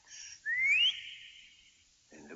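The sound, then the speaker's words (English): A single sharp whistle, someone whistling for his dog Max, slides upward in pitch, then holds and fades out, clear. A brief voice starts up right at the end. “Then he loaded some bags and some old empty sacks on a ramshackle sleigh, and he whistled for Max.”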